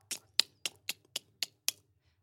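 Seven crisp camera shutter clicks fire off in a quick, even burst, fairly loud, with quiet between each snap and no voices: people taking selfies at a bench.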